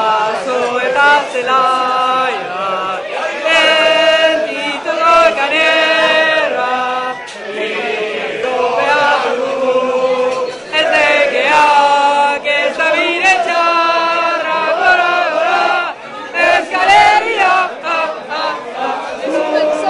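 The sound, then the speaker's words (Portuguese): A crowd of football fans sings loudly together in a pub in London, a sustained chant with rising and falling melodic lines that carries on unbroken, with brief dips between phrases. “Inclusive esse áudio que a gente vai ouvir, eles estão em Londres e o áudio foi gravado num pub.”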